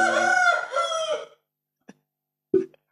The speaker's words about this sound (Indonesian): Ayam berbunyi. Seperti biasa kita syuting di rim eh tag di rimba, ya, rimba. Jadi wajarin aja ada ayam.